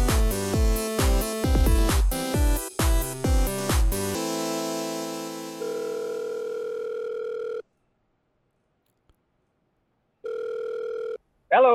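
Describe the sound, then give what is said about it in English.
A few loud musical stabs give way to a phone line ringing for a call placed from a local county jail in the Libertarian Friendship Simulator: two steady electronic ring tones, each about two seconds long, separated by several seconds of silence, with no talking. “I'm glad you answered.”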